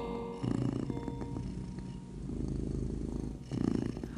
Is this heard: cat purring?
yes